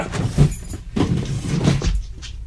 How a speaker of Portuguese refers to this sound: Você está encostando a cômoda na porta